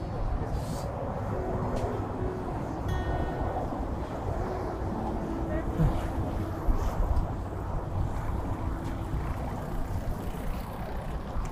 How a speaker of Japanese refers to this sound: というところで夜の海ですね